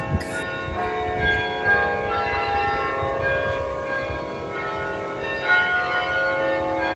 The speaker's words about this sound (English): sustain on those bells to really make it out. I hope this is one guy doing it live.